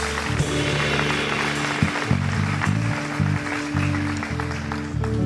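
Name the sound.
audience applauding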